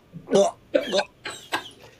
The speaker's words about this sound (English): Are you coughing up a, fur, a furball? It's a it's the cider.